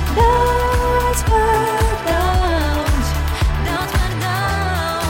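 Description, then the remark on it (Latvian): A bright, upbeat little pop song plays with a melodic sung line over steady bass and drum beats, loud, with no talking over it. “Maza un ļoti jauka popdziesma.”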